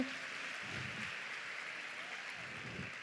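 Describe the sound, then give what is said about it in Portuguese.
A church audience claps steadily for about three seconds, applauding the Lord for a missionary woman called up front, a dense, even patter of many hands with faint low murmurs underneath. “Aplauda ao Senhor pela vida dessa mulher de Deus, mulher cheia do Espírito Santo.”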